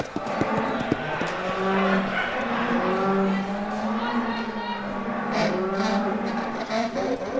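Several long, low cow moos overlap one another in a steady series, set against a dense, constant background of noise that sounds like a busy crowd.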